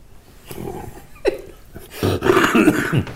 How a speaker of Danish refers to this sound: siger han så og hoster.